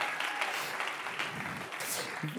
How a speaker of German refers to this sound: Okay, das war jetzt ein halber Applaus, okay? Können wir mal einen ganzen Applaus geben? Hammer.